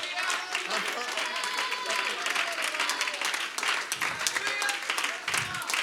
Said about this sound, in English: somebody clap your hands.